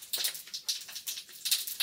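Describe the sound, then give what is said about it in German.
Onions, now nicely browned, sizzle in a pan, a soft, hissy crackle that comes in uneven surges and pops, bright and airy, with no one talking over it. “So, hörst du es brutzeln? Ich höre es brutzeln.”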